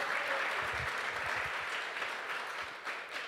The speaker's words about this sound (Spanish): ¿Cuánto le da un aplauso fuerte al Señor?